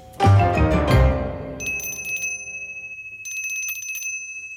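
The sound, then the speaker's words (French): A small hand bell rings out bright, first with a couple of strong clangs that shimmer away, then in two quick bursts of rapid, jangling shaking. “très à propos avec sa maudite clochette”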